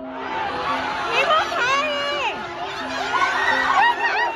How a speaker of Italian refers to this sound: Questa è una folla fatta soprattutto di giovani e classe media, accomunati da due sentimenti, frustrazione e impotenza. Dal 2020 le loro vite sono appese al filo della politica zero Covid voluta dal Partito Comunista Cinese.